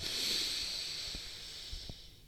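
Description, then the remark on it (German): A deep, airy breath taken in the morning as conscious deep breathing in and out, a long steady rush of air that slowly fades over about two seconds, with no talking. “Tief ein und tief aus.”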